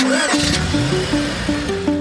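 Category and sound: vehicle, car engine starting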